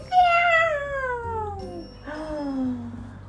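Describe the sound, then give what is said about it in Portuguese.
A cat whose tail has just been stepped on lets out two loud yowls, each a long wail sliding downward in pitch, the second shorter and following a brief pause, with no talking. “Ela não viu porque ela tinha deixado o óculos no quarto da Emília e ela pisou no rabo do gato e o gato”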